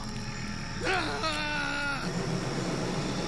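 A single wavering scream carries across a yard from a porch, ringing out for just over a second, its pitch sliding down then holding steady before cutting off, over a constant low background hiss.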